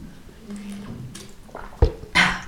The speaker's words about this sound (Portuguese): Estou aqui para já desculpem lá, só virem barulhos, estou a ir buscar a minha garrafa de água porque preciso.